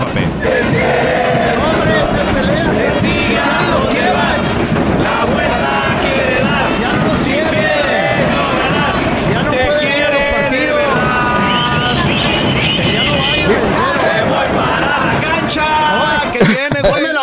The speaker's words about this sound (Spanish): No, mira. las porras, mira. las de las águilas son las mejores,